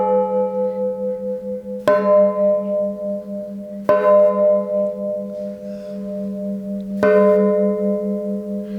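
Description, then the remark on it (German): A deep, resonant cast bell is struck three times at uneven intervals, each clang blooming into a long humming ring that sustains and overlaps the next, loud with no voices. “Und da muss man nicht religiös sein oder irgendwie, wenn Glocken läuten, es ist Heimat.”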